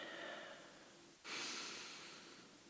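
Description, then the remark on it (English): A person breathes deeply and slowly: a long, airy exhale, then a sudden, fuller inhale drawn in and held, with no talking. “Focus on your breathing.”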